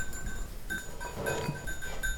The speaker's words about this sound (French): Les petits biquets.